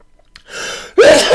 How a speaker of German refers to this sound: Niesattacke! Gesundheit!